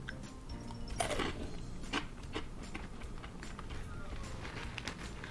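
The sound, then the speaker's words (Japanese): Crunching as someone bites into a crisp Piri Curry snack made by Tengu Seika of Kyoto, with two sharper crunches early on followed by steady, rough chewing noises throughout. “ちなみに今日買ってきたのはねこれ天狗製菓京都ジャパンですよ京都の方のソウルフードなのかしらと思ってるんですけどねもし京都の方聞いていたら「あ天狗のピリカレーね」って反応したら是非教えていただきたいんですよまあその前にちょっといただきます咀嚼音ありますよ”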